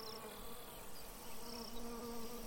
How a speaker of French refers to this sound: Elle passe derrière vous. Elle est partie vers la gauche. Elle va qu'à ses occupations. Son déjeuner. Une mouche. Un moustique. Une coccinelle. Je ne sais pas, j'ai pas eu le temps de le voir.